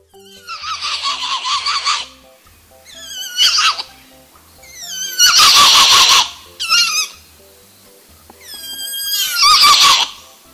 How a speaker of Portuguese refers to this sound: Esse é o som do muriqui. Oh. Nossa, doutora Mirinha, parece um cavalo relinchando. é um macaco? É um macaco. Ele chama muriqui ou mono carvoeiro.